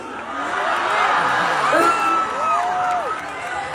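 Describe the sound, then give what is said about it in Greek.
A large concert crowd roars and cheers in a dense, sustained wash of noise, with scattered whoops and shouted voices rising above it, loud and continuous throughout, as the audience bursts into applause after the singer speaks Greek to them. “Όπω ήταν λογικό, το κοινό ξέσπασε σε χειροκροτήματα.”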